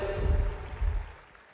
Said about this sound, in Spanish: Este aplauso es para ti y para Perú.